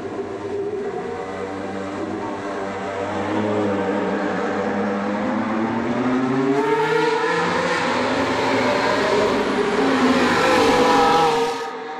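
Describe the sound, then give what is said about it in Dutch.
A race car engine roars continuously, its pitch climbing as the car accelerates along the Silverstone circuit during filming days, growing louder before cutting off abruptly near the end. “de auto nu al op het circuit van Silverstone aangetroffen voor de filmdagen”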